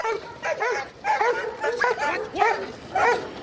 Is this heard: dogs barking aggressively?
yes